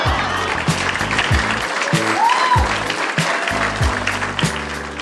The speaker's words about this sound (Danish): Giv en stor hånd til Anne Bakland.